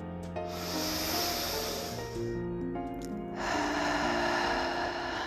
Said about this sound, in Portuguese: Você vai se concentrar no aqui agora, respirando profundamente pelo nariz e soltando pela boca.